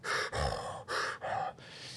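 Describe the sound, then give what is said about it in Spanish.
A voice imitates breathing through a scuba regulator: loud, hissing inhales and exhales alternate in quick, even bursts, with no talking. “Porque cuando estás abajo del agua, primero que tenés que estar muy atento, porque si haces una cagada podés tener un problema, pero además escuchás tu respiración todo el tiempo”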